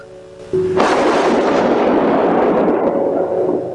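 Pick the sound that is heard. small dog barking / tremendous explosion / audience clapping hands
tremendous explosion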